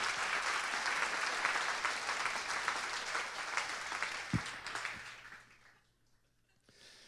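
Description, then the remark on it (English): A church audience applauds to give God a clap for what he has done, a sustained wash of clapping that swells, then tapers off and fades to near silence after about five seconds, with a few scattered claps at the end. “Come on, if you're going to, if you're going to give God a, a clap for what he's done, not a little golf clap, really give him a clap.”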